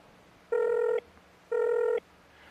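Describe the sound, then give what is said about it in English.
Two identical electronic telephone dialing tones as a phone call is placed, each a steady half-second beep separated by an equal pause, sounding clearly over a quiet background with no one talking. “So if technology can be formed and shaped like a button, like a textile, like something they can use, they absolutely can make a wearable, a garment which can place a phone call.”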